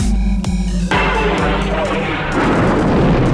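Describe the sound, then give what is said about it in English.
A sound effect of the planet Alderaan exploding: a loud, deep explosion blast with a sharp burst near the start, followed by a heavy, sustained rumbling roar that fills the whole clip. “Welcome to the Explosion Network's Countdown to the Last Jedi podcast, Countdown podcast, Alderaan Explosion. Was that correct”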